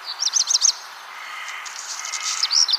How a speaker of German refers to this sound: Hier mal eine kleine Auswahl von Vögeln, die in diesem Monat zu singen beginnen. Der Hausrotschwanz.